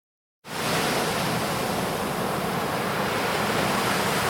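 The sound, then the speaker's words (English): After a brief silence, ocean surf sets in as a steady, loud rushing roar that continues without distinct separate wave breaks or any voices. “Now, this is the life lounging in the sun, listening to the soothing sounds of the ocean, collecting colourful seashells.”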